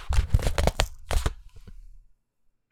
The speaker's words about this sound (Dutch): Dat moest kraken zijn. Ehm, ik hoop dat het overkwam.